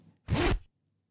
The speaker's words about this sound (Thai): someone zipping it's the zipper Yeah, it's a zipper.